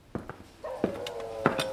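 A sick female dog whimpers with a thin, sustained high whine running through the middle, broken by a few soft thumps and shuffles; fairly quiet, with no talking. The dog is losing its fur, has a bleeding wound on its ribs and has stopped eating.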